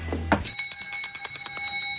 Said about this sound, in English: This is a little bell I ring when someone's being a total ass.